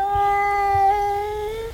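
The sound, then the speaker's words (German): A single long, drawn-out meow from an old, fat tomcat, loud, holding a steady pitch with a slight wobble partway through. Faint low thumps sit beneath it, and no one speaks. “Ja, ist ein ganz das feines alte Katerchen.”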